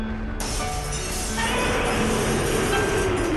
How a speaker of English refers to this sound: The dome ceiling shattered, glass poured down like rain